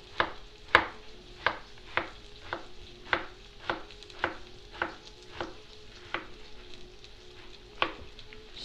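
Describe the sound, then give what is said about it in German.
A large knife cuts zucchini, halved lengthwise twice into four pieces, into small slices on a cutting board: about a dozen crisp, evenly spaced strokes with a faint steady hiss and hum underneath and no talking. “mache das wieder so, dass ich ihn längs durch halbiere und dann noch einmal nochmal längs durch halbiere, dass ich wieder vier Stücke habe und schneide dann wieder in kleine Scheiben. mit einem großen Messer.”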